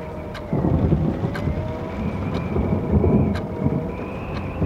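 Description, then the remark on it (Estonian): Low, distant thunder rumbles steadily beneath a continuous wash of rain beating against the stained-glass windows of an inn during a strengthening storm, with occasional faint sharp ticks of drops hitting a surface. No voices are present. “vihm rabistas ühtlaselt vastu kõrtsi vitraažakneid ja nüüd kostis aeg-ajalt ka kauged kõuekõminad.”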